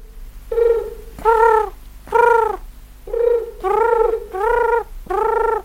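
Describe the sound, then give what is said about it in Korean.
A pigeon coos in a series of six throaty, warbling calls, each lasting about half a second, repeated in a steady rhythm over a low, continuous rumble. “꾸르륵, 르륵르륵르뭐 요런 느낌으로 우는 친구인데, 우는 소리 다시 한번 들어보실래요?”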